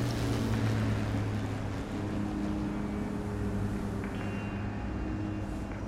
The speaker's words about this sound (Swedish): och plötsligt hör de ett motorbuller.